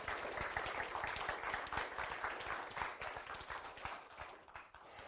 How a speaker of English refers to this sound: Good. Okay. An applause would be wonderful.